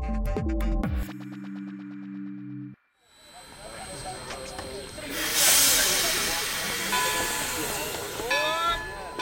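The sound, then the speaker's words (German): A steam locomotive hisses steadily in a busy station, broad hissing steam swelling loudly midway amid clanks and background bustle, after a brief tonal jingle and a short gap at the start. “Ach, dieses Dampfrost wird mich nicht zum Galopp verleiten.”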